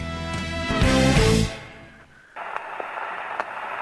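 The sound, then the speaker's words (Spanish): A loud musical burst fades out, then an old 78 rpm vinyl record starts: a steady surface hiss with scattered clicks and pops, continuous, no voices. “Así empezaban los viejos discos de vinilo que giraban a 78 revoluciones por minuto.”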